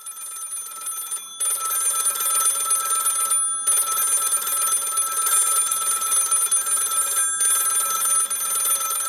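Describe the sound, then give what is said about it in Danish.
A chorus of old-fashioned telephones on the lines into a radio station rings at once, their bells overlapping into a loud, continuous jangle broken only by a few brief pauses. No one speaks. “så sker der noget på, hvad hedder det, telefonlinjerne ind til der Der er telefonstorm.”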